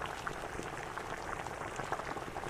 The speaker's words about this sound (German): Er holte Holz, um den Ofen anzufeuern, und dann erhitzte er einen großen Topf mit Wasser.